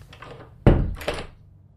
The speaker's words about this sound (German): Kaum war die Tür hinter ihm ins Schloss gefallen